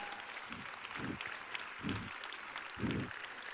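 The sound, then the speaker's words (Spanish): A crowd applauds the group Ja on a Pontevedra Viva Radio program, with dense, sustained clapping and a few deeper, rhythmic bursts rising through it now and then. No one speaks. “Un forte aplauso para o equipo Ja.”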